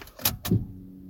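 Two sharp clicks in quick succession as a car is switched on, then a steady low electric hum sets in as the power window motor starts to lower the glass.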